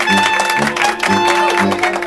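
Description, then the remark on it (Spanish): An audience claps along in a steady rhythm, dense and loud, over music with sustained tones and a repeating bass pattern. “Vamos con las palmas.”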